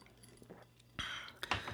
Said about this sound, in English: I just um, toast you all with another quick sip of this delicious uh, distiller's cut whiskey.